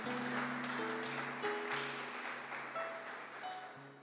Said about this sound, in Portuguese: Vamos aplaudir Jesus bem alto, gente. Vamos aplaudir bem alto.